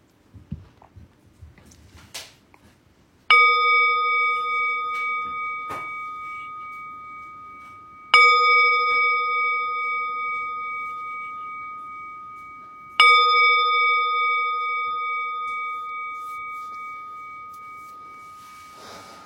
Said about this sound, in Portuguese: Então vamos lá, a gente toca, a gente convida o sino a soar três vezes para começar a nossa prática e uma vez para interromper o período formal de prática